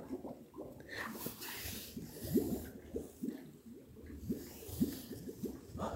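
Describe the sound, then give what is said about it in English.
Bubbles gurgle and pop in water in a steady, irregular stream of soft, low burbling bursts, fairly quiet, with no voices over them. “One, hopefully you can hear the bubbles.”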